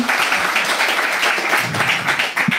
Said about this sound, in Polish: A, e, właśnie, uważam, że te brawa są zasłużone.